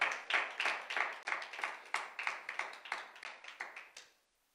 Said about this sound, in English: Give God a round of applause. Come on, give it up to the Lord.